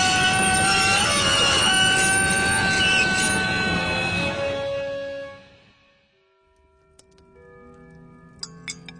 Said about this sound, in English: The train was halted a clear four inches before striking the stony rampart.